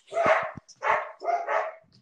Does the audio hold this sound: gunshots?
no